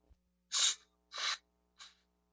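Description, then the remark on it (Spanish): A voice imitates the speaker's tinnitus noise, heard in the head like a pressure-cooker hiss: three breathy, sharp hissing bursts in a row, the first two longer and strong, the third shorter and fainter, with no talking. “No quiero decirte las noches, yo sentía una olla express en mi cabeza. O sea, mi ruido era así, escuchen.”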